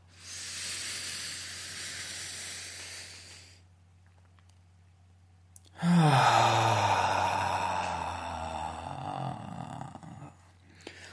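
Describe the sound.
A person breathing slowly for an energy practice: a long, slow, loud inhale through the mouth, a brief pause, then an extended voiced exhale that trails off like a deep sigh. Unhurried.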